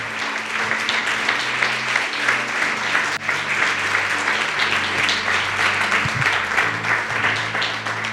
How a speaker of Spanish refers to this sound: Aplauda a Cristo.